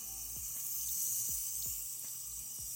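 water running

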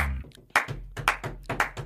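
hands clapping

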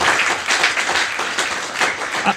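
audience applause

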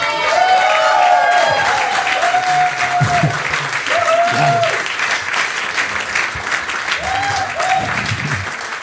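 audience applauding and cheering

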